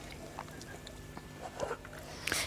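Quiet chewing with soft wet smacks and clicks as a person tastes food, scattered irregularly over a couple of seconds, a slightly louder burst near the end, and no talking.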